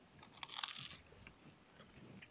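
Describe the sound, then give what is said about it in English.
A crisp, crunchy bite of potato, a short burst of crackling, followed by a couple of seconds of softer, muffled chewing with no talking. “It is pretty crunchy though.”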